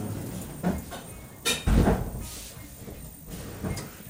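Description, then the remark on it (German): Mechanical whooshing and rumbling of an automatic sliding door opening and closing, with a few soft thumps and a louder low bump in the middle, set against a steady hum; no one speaks. “Leider auch oft zu hören, diese Tür, die automatisch hier ja. fließt.”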